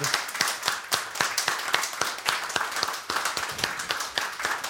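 An audience applauds steadily throughout, a dense, bright patter of many hands clapping at an even, sustained level with no voices standing out.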